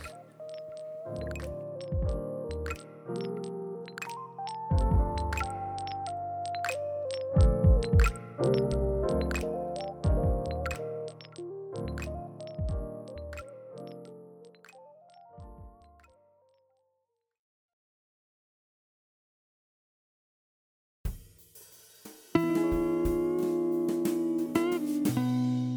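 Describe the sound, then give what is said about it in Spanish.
A song played as a break between sections plays with punchy rhythmic hits and deep bass notes under layered melody, stops for several seconds of silence, then a denser, louder stretch of music kicks in. Nobody speaks. “Escuchen esta canción y ahorita venimos.”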